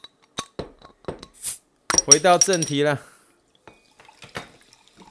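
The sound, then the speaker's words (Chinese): Sparkling water poured into a glass: a few sharp glassy clinks and drips with a short fizzy hiss, followed by a man speaking briefly, then faint scattered ticks. “好了，既然今天是周五回顾时间，那当然我们还是要来一下气泡水的声音。”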